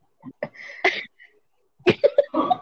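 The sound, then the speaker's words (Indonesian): A voice imitates hawking up phlegm with harsh, raspy throat bursts, a short cluster, a brief pause, then a longer gravelly run of hacking sounds, fairly loud. “ngorok kalau kecil gimana jerit kayak buang reak gitu”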